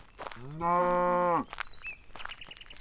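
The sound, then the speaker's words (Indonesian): A cow gives one long, loud moo, sliding up into a steady drawn-out low tone for about a second before cutting off, followed by faint high chirps and light background noise. “Hai anak muda, apakah kau mau menjual sapi itu?”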